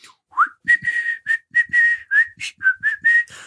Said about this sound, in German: Ich bin heute bei Aldi gewesen und ich hätte am liebsten da drinnen andauernd Weihnachtslieder gepfiffen, so.